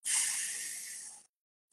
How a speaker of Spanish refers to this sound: Tómate estos minutos para tomar esta respiración y centrarte. Nuevamente tomamos una respiración.